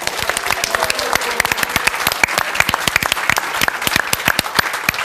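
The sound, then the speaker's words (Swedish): Audience applause at the end of the show Eftersnack, a dense, steady patter of many hands clapping, holding at an even level for several seconds with no voices over it. “Och så vill jag tacka publiken och höra ett sista julklapp.”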